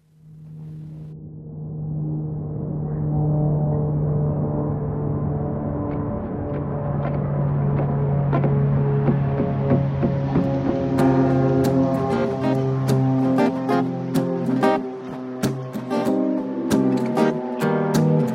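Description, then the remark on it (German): A German pop song's instrumental intro plays loudly on its own, opening with deep sustained droning tones that swell into a fuller synth texture, with sharp rhythmic percussion hits joining in the second half. “Gibt es jetzt äh, ein Lied, was ich immer wieder gerne höre, zu jeder Uhrzeit?”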